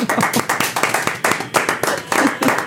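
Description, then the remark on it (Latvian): A studio audience of a Saturday-morning trivia game show applauds with brisk, steady clapping, many hands overlapping into a dense, bright patter that holds at an even loudness throughout. “Un, protams, studijās gan aplausa.”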